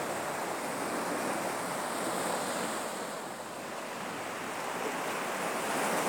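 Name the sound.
ocean waves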